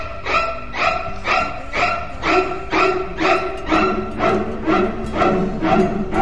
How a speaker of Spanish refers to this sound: vamos a sortear un perro que ladra cuando estamos grabando el programa. Y también, eh, aguárdenme un segundito que voy a matar a mi perro y vuelvo.